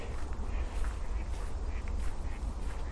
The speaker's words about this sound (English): listening out. the cry of the wild duck. The one thing I'm determined to do today. there they go again. They're just circling me.